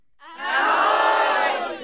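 A group of schoolchildren on an excursion to Rádio Melody shout "ahoj" together in one loud, sustained chorus of high voices that swells quickly and holds for over a second before fading.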